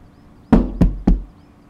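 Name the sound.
knocking on a door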